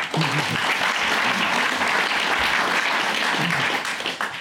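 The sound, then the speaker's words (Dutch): Steady applause from a group for a man who has just been introduced fills the whole stretch, a dense, continuous patter of clapping hands with no talking over it. “Nou, ik denk, denk dat hij ook wel een applausje verdient, toch?”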